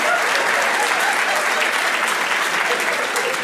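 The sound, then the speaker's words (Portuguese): An audience at a show cheers and shouts over steady clapping after being asked whether anyone there is evangelical, a dense, loud wash of crowd noise that holds at an even level for a few seconds without letting up. “Alguém é evangélico? Faz uh! uh! Maneiro, pode, pode gritar, viu, gente?”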